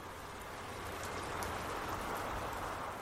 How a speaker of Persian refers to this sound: اینا از اومدن آبدارچی بانک و نگاه چپ چپش فهمیدن بارون شدیدتر شده بود